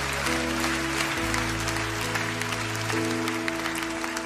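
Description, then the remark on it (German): An audience applauds God loudly and steadily with dense clapping while sustained organ or keyboard chords hold and shift underneath. “Und ich finde, wir sollten ihm mal einen richtigen, mächtigen, powervollen Applaus geben.”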